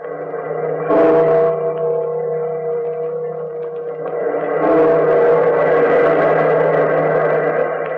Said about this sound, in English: Bell keeper, toll the bell.